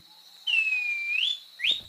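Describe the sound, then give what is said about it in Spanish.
A thrush-like schiffornis whistles its song, recorded for the Colombian Bird Sound Bank of the Instituto von Humboldt and Cornell University: one long, pure note that dips slightly and then slides upward, followed by a brief rising whistle, clear against a quiet background. “El trino del saltarín turdino forma parte del Banco de Sonidos de Aves Colombianas, recopilado por el Instituto von Humboldt y la Universidad de Cornell.”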